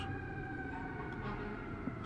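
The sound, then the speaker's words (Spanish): A fire engine siren blares as huge fire trucks pass by in New York, a loud, steady wailing tone held throughout, with a low rumble of traffic underneath. “bueno, que pasan los bomberos.”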